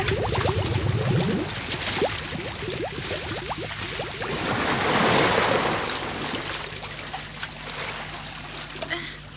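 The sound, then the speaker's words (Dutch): Water flowing in splashes and rushes steadily throughout, a churning wash that swells in the middle, with brief voice-like sounds breaking through near the start. “Maar dit lijkt niet op het water in het reservoir.”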